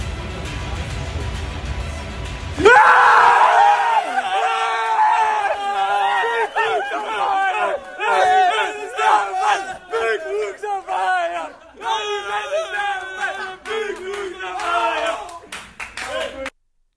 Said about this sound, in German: Ja, ausgelassene Freude hören wir da in der Kabine des SV Werder Bremen.